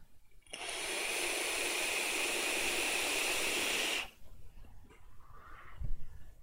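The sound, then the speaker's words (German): A loud, steady airflow hiss from a Council of Vapor Scion Kit vape device being drawn on, lasting about three and a half seconds, then cutting off abruptly into quiet background rustle. “Macht Lärm wie ein Staubsauger, Alter.”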